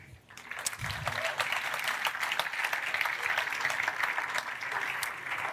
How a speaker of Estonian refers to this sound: nii jätkame plaksutamist, nad on tulevad.